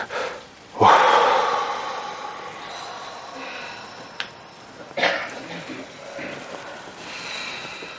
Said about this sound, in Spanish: Bien, vamos cogiendo otra vez el pulso a nuestra respiración, hacemos tres respiraciones profundas y en la última dejamos salir un poco